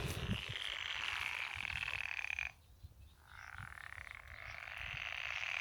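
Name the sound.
frog croaking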